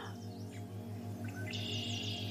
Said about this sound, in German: Vielleicht kannst du die Blätter rauschen hören, den Wind, vielleicht hörst du Vögel.